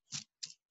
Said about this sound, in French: ça, c'est le bruit du brumisateur.